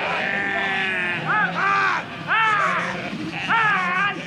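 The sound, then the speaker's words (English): A herd of sheep being rounded up for shearing at a yearly summer sheep shearing event in Two Bridges, County Devon, England, bleats repeatedly, several wavering calls overlapping, rising and falling in loud bursts over a steady background of more bleating. “John Levack Drever recorded this herd of woolly bleeders being rounded up for a trim”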